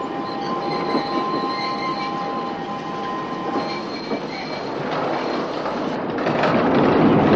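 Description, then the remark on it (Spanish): A train brakes, its wheels giving off steady, high-pitched metallic squeals over a constant rolling rumble. The squealing fades after a few seconds while the rumble swells louder toward the end. “El tren frena y la chica cae.”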